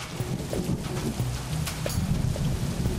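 Steady summer rain in August at Paredes de Coura hisses throughout while a low, rolling rumble of thunder churns underneath, with a few sharper crackles and drops popping out clear, no voices.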